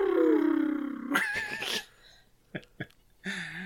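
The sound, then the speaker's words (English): A voice imitates a futuristic electric car pulling up: a smooth falling hum, then a wavering whine, a couple of short clicks, and a final humming tone, fairly loud. “Apparently, that's what electric cars sound like now. Yeah, it sounds like the Jetsons, like pulling up”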